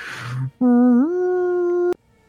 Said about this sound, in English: you hear a third one. Oh no three horns